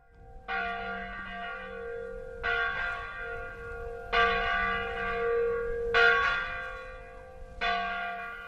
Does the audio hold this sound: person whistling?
no